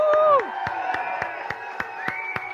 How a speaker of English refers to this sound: And uh, can you guys all just pretend like you're screaming at the TV right now, like it is the Super Bowl, and get rowdy for our online family right now? Can you give it up for them? Come on. Woo!